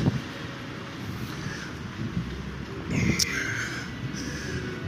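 Wind buffets the microphone in a continuous low, blustery rumble that swells slightly around the middle, with no one speaking and only faint higher sounds in the background.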